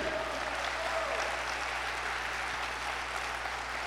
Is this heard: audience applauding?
yes